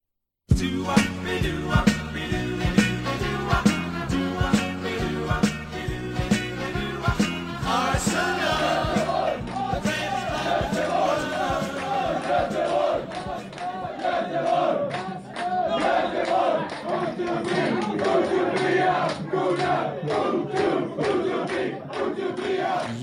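A large crowd of football fans sings the chant 'O to be a gooner' together, loud and steady, with a clear repeating beat in the first half before the singing swells into a denser, sustained roar.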